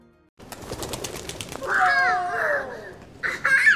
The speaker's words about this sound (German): Landau in der Südpfalz an einem wintersonnigen Freitagmittag. Auf dem Rathausplatz jagen ein paar Kinder Tauben hinterher. Die Mütter schauen zu, unterhalten sich, entspannte Atmosphäre.